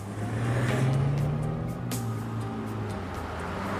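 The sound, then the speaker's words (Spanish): A car engine revs and accelerates, its droning tone climbing before leveling off, over a steady wash of heavy road traffic noise throughout, as fugitive Alpo Martínez flees officers and disappears into the traffic. “Los agentes lo siguieron, pero el fugitivo desapareció entre el fuerte tráfico.”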